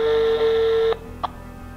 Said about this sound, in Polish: już właśnie mówiłem, że jeszcze jeden sygnał i się rozłączam i dzwonię dalej.